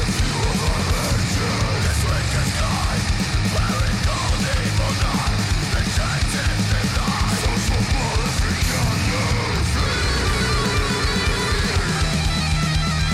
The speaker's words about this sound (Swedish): Bra tjoflöjt direkt här. Jävligt eh, gött sprucket ljud. Tvåtaktsstuds. Skriksång.